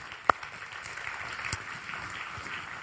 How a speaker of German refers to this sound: Ähm, wir haben hier unsere Lieblingsbegrüßungsteam. Das können, dem können wir mal einen Applaus geben. Links und rechts.